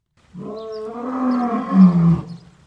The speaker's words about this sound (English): Lions don't meow, but you know, their roars would be terrifying.